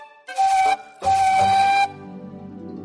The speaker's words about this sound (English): She is a big, strong tender engine with a whistle that sounds like this.